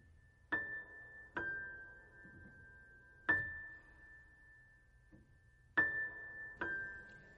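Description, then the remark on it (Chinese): A New Year bell is struck five times at uneven intervals, each strike loud and bright, its clear ringing tone lingering and fading between hits. No voices are heard. “新春的钟声敲响后”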